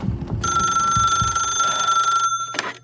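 A single long telephone ring, a bright steady electronic trill lasting about two seconds, loud over a low rumble, then a short clunk as it stops.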